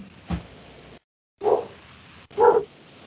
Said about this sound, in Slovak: No, ak teda e, nie je ďalšia otázka, počujem tam len brechať nejakého psíka. No to u nás bohužiaľ nedá sa mi to nejako ovplyvniť, ospravedlňujem sa.